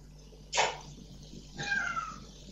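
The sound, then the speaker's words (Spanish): A cat named Calo, wanting to be let outside, meows twice, the first cry short and sharp, the second longer and more drawn out, with no talking. “Esperen que voy a sacar al gato, me parece que quiere salir.”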